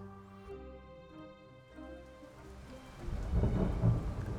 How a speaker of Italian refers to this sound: Stando bene attenti a non scivolare sull'acciottolato nero scivoloso, lucido di pioggia, protetti da un ombrello che ci ripara poco e male dalla pioggia battente, ci guardiamo intorno alla disperata ricerca di un riparo